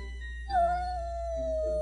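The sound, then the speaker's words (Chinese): A single long, drawn-out cat meow, starting abruptly and then holding a steady tone that slowly sinks in pitch, with no talking around it. “轰隆轰隆，喵！”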